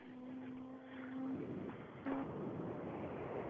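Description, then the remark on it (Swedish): A loud Golf rally car engine, driven by Fredrik Eriksson in a Swedish rally, roars in a steady drone, eases off for a moment, then surges again with a rough, noisy growl as it revs out toward the finish signs; no one speaks. “Ja, det låter fantastiskt, gör det ju när Golf varvar ur in mot målskyltarna.”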